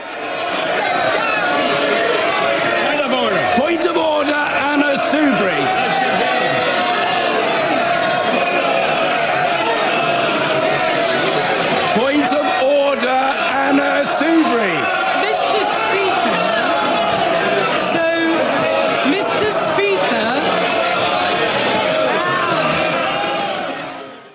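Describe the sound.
Rowdy shouting fills a parliament chamber, with many voices clamouring and jeering at once in a loud, continuous din that never lets up for the whole stretch.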